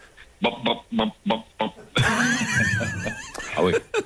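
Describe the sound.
A voice imitates the sound a car engine made when it juddered: a rapid run of short, choppy vocal bursts, then a sustained warbling, rattling vocalization that trails into a few final sputters, fairly loud.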